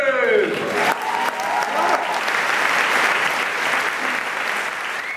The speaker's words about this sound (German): Liebes Publikum, zwischen Trittbach und Önzigen ist er weltberühmt, aber heute ist er nur für euch da. Bitte begrüßen mit einem frenetischen Applaus wie heißt er?